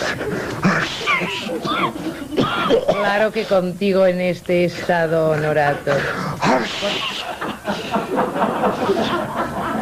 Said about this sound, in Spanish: estornuda hacia el otro lado, por favor. Voy a coger un reuma.